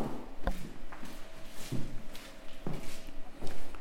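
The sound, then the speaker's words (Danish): Footsteps thud down a short flight of stairs in a museum, four or five uneven steps spaced about a second apart, with faint background hum. “Og så går vi ned ad en lille trappe her.”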